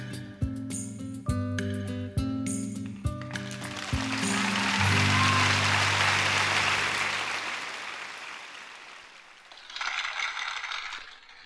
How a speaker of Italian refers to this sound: E applausi anche dallo studio